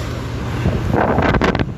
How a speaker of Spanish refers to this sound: ¿Han cachado cuando se forman mini tornados? Así como mini remolino y levantan weas, pero muy chiquitita. Ya, acabo de ver un mini tornado.